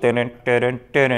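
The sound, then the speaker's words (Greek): A loud voice imitates the synth-style Knight Rider TV theme tune, singing three evenly spaced, identical two-note syllable bursts in a quick, driving rhythm. “Night Rider.”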